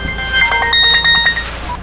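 A mobile phone ringtone plays a quick, bright electronic melody of rapid repeating tones, fairly loud, over a faint low hum with no talking, inside a car stuck in a traffic jam while snow falls.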